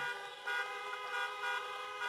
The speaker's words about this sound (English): Joe Biden spoke first to a drive in rally in Iowa. Honk if you want America to lead again.